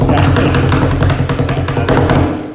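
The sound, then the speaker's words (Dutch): A quick drumroll tapped out by hand on a tabletop, a rapid run of loud, low thumping taps with a few sharper accents, lasting a couple of seconds. “Ik trommel even.”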